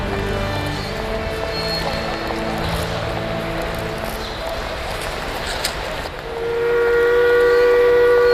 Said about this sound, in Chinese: 火车快开了，我得上车了，你先回去吧。